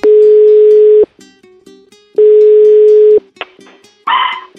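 Two long, steady ringing tones on a phone line during a call to someone in Santos, then a dog answers with a couple of short, tinny barks coming through the receiver.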